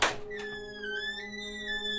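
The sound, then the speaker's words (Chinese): A toilet stall door gives a single dull thunk, followed by a steady, high, whining tone that drifts slightly in pitch for about two seconds. There is no talking. “然后我走到小便斗前开始小便，结束后要去洗手时，我听到里面的那扇门发出，”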